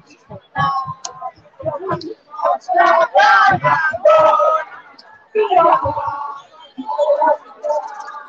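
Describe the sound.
Right after the national anthem, a group of voices sings the Internationale together, loud and somewhat ragged, in chanted phrases separated by short pauses, with a crowd-like roughness to the sound.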